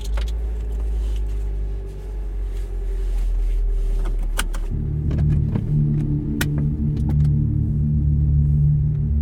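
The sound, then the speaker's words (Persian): A car's power window hums steadily downward for several seconds over a low engine rumble, stopping with a soft clunk before the idling car continues. “دستشو گذاشت رو کوه شیشه رو داد پایین و با دستش اشاره کرد که بیا رفتم سمت ماشین و سوار شدم”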